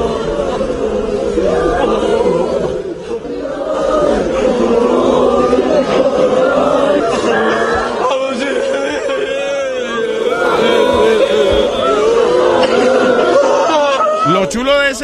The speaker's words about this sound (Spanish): Oye la gente llorando por quien llora.